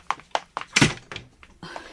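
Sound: door being closed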